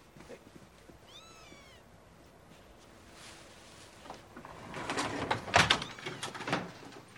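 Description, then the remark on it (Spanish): A cat gives a single short, rising-and-falling meow early on, followed a few seconds later by louder scraping and knocking sounds, like a door sliding or being handled. “¿Y eso? el gato.”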